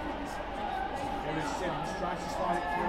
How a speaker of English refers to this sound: you will be able to hear a bit of background noise because though there are no fans, there's a, a crowd noise generating app